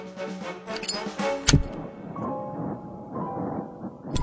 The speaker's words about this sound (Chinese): 怪老头用穿夹克那家伙的打火机点着了烟斗，说了句“谢谢您了”，又把打火机塞回那个家伙的衣袋里。